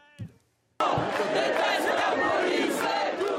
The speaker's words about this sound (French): Alors que des dizaines de participants à la marche organisée par Assad Traoré scandent des slogans anti-police, des élus insoumis et Europe Écologie Les Verts marchent fièrement en tête de file.